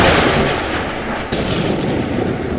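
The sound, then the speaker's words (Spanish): A loud, continuous rumble of thunder from an approaching storm over a forest rolls on without a break, deep and booming. No voices are heard. “Uy, ¿escucharon eso? Mejor vamos al auto que se viene una retormenta.”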